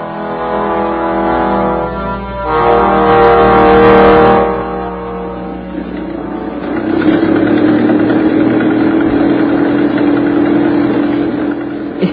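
A car engine idles with a steady low hum. It swells briefly, then settles into a rougher, fuller rumble that continues, with no voices.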